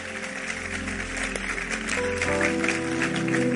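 Steady applause from an audience, a dense wash of many hands clapping at an even, fairly loud level, with sustained musical tones playing underneath.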